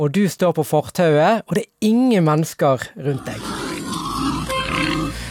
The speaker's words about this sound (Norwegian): Vi er i Spania, og dette dette er lyden av en flokk svarte villsvin, altså griser som lever i naturen, som rett og slett hadde forvillet seg inn i den spanske byen Arenys de Mar, som ligger i nærheten av eh, Barcelona.